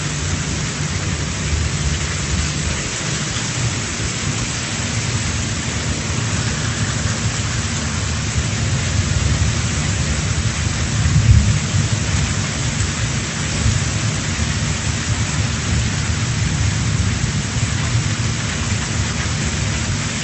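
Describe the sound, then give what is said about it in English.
A heavy, steady downpour roars without pause, dense, while low rumbles of thunder roll underneath, with one sharper crack around the middle. No voices are heard. “the image in Acts 2 is not a drizzle, it's not even a passing shower”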